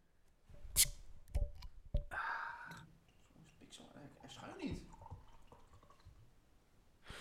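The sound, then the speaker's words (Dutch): A beer bottle cracks open with a sharp hiss and a couple of clicks, then pitch-black beer pours and gurgles into a glass, fizzing softly as it fills. “Ik ga hem openmaken en inschenken.”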